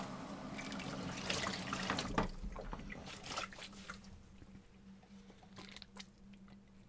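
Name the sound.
tap water running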